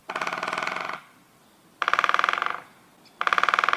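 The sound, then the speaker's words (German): A woodpecker, a forest animal, drums rapidly on a tree in three bursts of fast, even knocks separated by short pauses. The knocking is clear and there are no voices. “Es ist ein Specht, der gegen den Baum klopft.”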